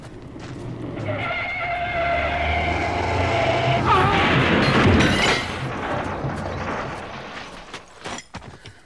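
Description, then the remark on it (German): Tires squeal in a long, loud skid for several seconds as a car speeds toward a parked car, then a heavy crash of metal on metal hits, followed by scattered rattling and clattering debris as the noise dies away. “Der verrückte Kerl jagt genau auf unseren Wagen los.”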